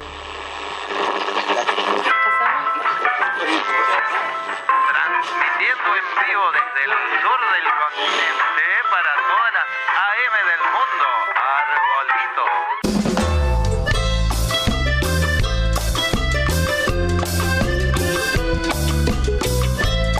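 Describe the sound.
A folk-rock song sung in Spanish, mixing folklore and rock, with a voice over sustained tones, then a full band kicks in partway through with a steady, driving drum beat and heavy bass, loud throughout.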